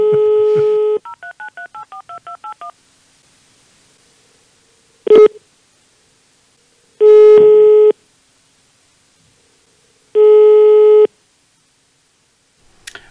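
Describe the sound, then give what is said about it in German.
A steady dial tone gives way to a quick string of keypad beeps, then a phone rings in loud, evenly spaced one-second tones with pauses between, clear with no voices. “Ring, ring! Anruf vom Discovery Panel.”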